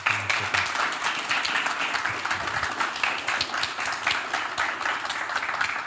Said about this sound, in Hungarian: Egy nagy tapsot szeretnék kérni mindkét képviselőtnek a közönség soraiból.